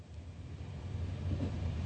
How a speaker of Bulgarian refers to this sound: След Рурската област, влакът прекосява един селско-стопански район